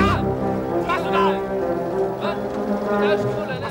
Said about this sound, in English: But as we cut back to Sala, who is watching the entrance and holding onto a rope for Indy, the music changes to threatening brass as the Nazis yell at Sala to leave the site at once.